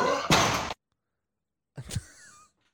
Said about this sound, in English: Let me hear that burp one more time. That burp sounds real to me.